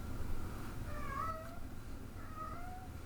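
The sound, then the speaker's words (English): A loud cat meows twice, two drawn-out, rising-and-falling cries about a second apart, heard over a low, steady background rumble with no one talking. “And they'll have the loudest cat on God's green earth.”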